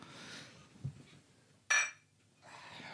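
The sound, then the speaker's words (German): A single bright, ringing clink of beer bottles knocking together in a toast before a first sip, loud, with quiet handling noise and rustling before and after. “Überhaupt ich würde sagen, äh, genau, ich würde sagen, wir, wir äh, stoßen erstmal an und dann äh, äh, ne, ne, dann genehmigen wir uns einen Schluck.”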